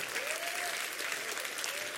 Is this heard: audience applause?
yes